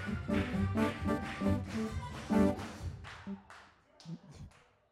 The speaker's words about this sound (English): The way they clap on the show is they clap on the one and the three. Stop. That's the wrong way to clap. Here's the right way to clap. Let's go. Wait. Come on, everybody clap your hands.